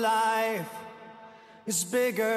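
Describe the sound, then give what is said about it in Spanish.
A lone sung vocal with no accompaniment, drenched in heavy reverb; a held note ends and its echoing tail slowly fades before the voice returns with another sustained phrase. “Bastante rever también. Bastante reverb.”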